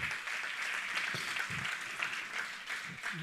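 A crowd claps steadily, a dense, continuous patter of many hands at moderate loudness that holds evenly throughout without pauses or voices.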